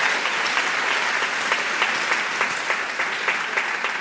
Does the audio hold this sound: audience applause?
yes